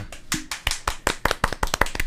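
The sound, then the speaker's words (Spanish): Brief applause welcoming a comedian guest on a show: a run of sharp, crisp handclaps, about a dozen in two seconds, starting loose and quickening into a steadier rhythm toward the end, with no voices over it. “Un aplauso.”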